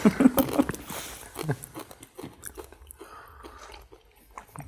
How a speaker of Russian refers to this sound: А я вот когда ем, слышно вот так? Да. Да. Сильно, да?